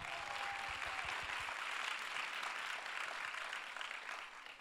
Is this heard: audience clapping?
yes